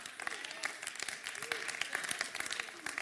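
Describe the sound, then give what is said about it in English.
A crowd claps steadily throughout, a dense, continuous patter of many hands with no single voice standing out, at a moderate, even level. “I'm glad we're clapping because the answer is we have to release it.”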